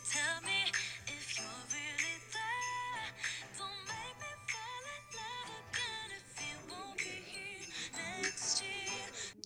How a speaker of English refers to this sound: Great song, great beat to it. Love the jingle bells. Um, I love listening to that song.